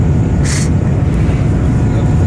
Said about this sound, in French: et puis là ça fait 14 heures qu'on est dans l'avion. Voilà, on est au-dessus de. On est au-dessus de, de la Hongrie. On va passer à l'instant de Budapest.